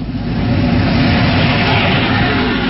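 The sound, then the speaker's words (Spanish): A reconnaissance airplane diving to attack a sailboat at sea, its engine a loud, continuous roar heavy in low rumble, holding steady from start to finish with no voices over it. “pero un avión de reconocimiento se lanza al ataque contra ellos.”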